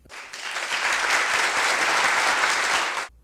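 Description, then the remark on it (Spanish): A burst of canned applause, dense and steady clapping from a crowd that starts abruptly, holds at full volume for about three seconds, then cuts off sharply. “Bueno, prepárense, díganles aviso prepárense porque ahora siguen los aplausos falsos”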